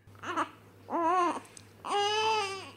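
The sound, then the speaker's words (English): Three short, high-pitched vocalizations from infant twin boys, fussy babbling that edges into crying, each rising and falling, over a faint low hum. “I think we've got some audio of what the boys actually sound like.”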